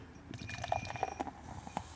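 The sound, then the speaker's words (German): Berry-coloured beer being poured from a can into a glass: a steady fizzy, gurgling wash of liquid with small bubbly pops and splashes running for about two seconds, and no voices. “trinkt, es ins Glas schütten und die Farbe angucken.”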